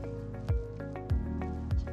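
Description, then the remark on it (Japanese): Water gurgles and splashes in an aquarium tank, 90 by 60 by 60 cm, in a steady rhythm, about three soft bursts in two seconds, over a constant low pump hum. Moderately quiet, with no voices. The water sound is made on purpose. “で、水の音を聞いてるとね、やっぱりこう、心が落ち着くっていうか、こう、わざとね、水の音を出したりしてるんで、その、水がバシャバシャバシャバシャっていう音がね、なかなか僕にとっては心地いい音。”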